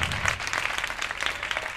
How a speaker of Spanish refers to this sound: Un aplauso para animar a esta promesa actoral.